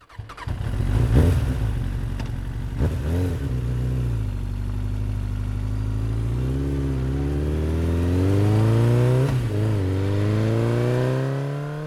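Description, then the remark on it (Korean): A motorcycle engine is restarted near Yeongdeok during a long road trip: it fires up and settles into a steady rumble, then revs up with rising pitch as it pulls away, the throttle swelling and easing again. “다시 시동을 걸어 영덕쯤에 왔을 때 컵라면에 몇만 건져 먹고 마음이 급해 다시 시동을 켠다.”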